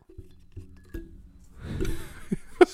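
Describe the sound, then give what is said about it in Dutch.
Handling of a glass jar used as a conversation pot as it is fetched: a few light clinks and knocks, a rustling shuffle of contents, then one sharper clink near the end. No voices. “Eh, Wacht, we gaan de kletspot erbij pakken.”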